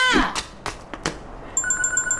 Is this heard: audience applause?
no